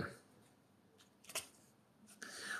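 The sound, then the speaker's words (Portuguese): Faint, brief scratching and clicking from a pen, a few short bursts over a quiet background, with a slightly louder rustle near the end. “Hoje a caneta está uma top star.”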